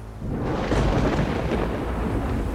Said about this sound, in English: There was a sudden flash of light, brighter than the sun itself, followed by the sound of rolling thunder, much louder and more terrible than anything Vernon had ever felt before.